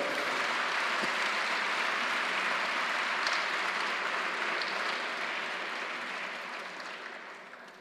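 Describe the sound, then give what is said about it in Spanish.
A crowd claps loudly and steadily, a dense wash of many hands that holds for several seconds before slowly tapering off toward the end, applause given to the Lord. “Dáselo fuerte al Señor, por favor.”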